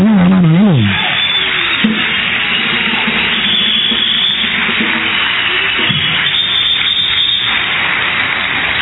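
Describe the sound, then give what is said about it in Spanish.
A crowd applauds steadily for several seconds, a dense, even wash of clapping with a wavering shout or cheer rising above it at the very start. “un aplauso”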